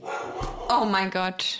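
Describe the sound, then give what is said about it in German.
The speakers' own dog barks a few short, sharp times, the barks overlapping a person's startled exclamation in a brief, busy moment. “Ja, das war unser Hund.”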